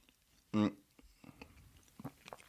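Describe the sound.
Someone chews a scone, with soft, irregular mouth and crunching noises, broken early on by a brief loud voiced murmur through a full mouth.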